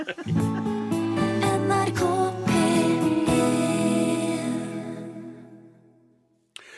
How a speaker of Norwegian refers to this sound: Voldsomt til plystring. Det var veldig plystrete, det der.